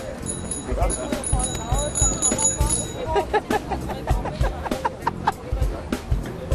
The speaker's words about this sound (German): Klingel, klingel.